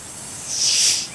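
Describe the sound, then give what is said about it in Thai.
A giant snake's hiss as it raises its head to strike at a cat: a single hiss swells up sharply, a breathy, airy rush that holds for about half a second before fading, heard on its own without any talking. “ก็ปรากฏว่า มีศัตรูได้ตรงเข้ามาหามันศัตรูนั้นก็คืองูยักษ์งูใหญ่ชู หัวจะฉกแมวเนรมิต”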